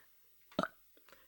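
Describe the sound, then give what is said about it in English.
A short, loud burp erupts, a gravelly belch lasting a fraction of a second, followed by a couple of faint mouth noises in near silence. “Uh, Want to introduce yourself instead of just burping in the audience's ear?”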